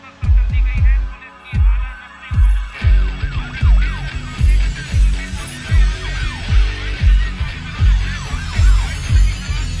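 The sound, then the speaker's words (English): Several emergency sirens wail and sweep up and down in overlapping glides, loud, over a heavy, regular low thumping that pulses throughout, at Kabul airport. “Okay, a lot of lot of sirens going off there. This is this is live in the Kabul airport.”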